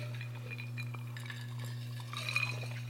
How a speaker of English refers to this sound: so hey, before we get too far, we have to do a big one ounce cheers to everybody here today.